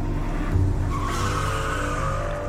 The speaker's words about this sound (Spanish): Mi hermano, aterrorizado, pisó a fondo el acelerador.